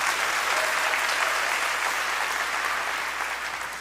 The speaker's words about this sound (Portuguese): Pode dar salva de palmas ao Senhor.